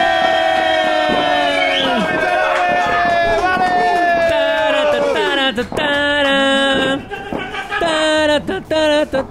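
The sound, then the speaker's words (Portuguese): A group of voices loudly mimics a firework rocket at the New Year countdown, with sustained, gliding whistle-like tones that sweep downward in pitch, overlapping and cutting off in ragged bursts near the end. “Nossa, esse foi o pior rojão que eu já ouvi na minha vida.”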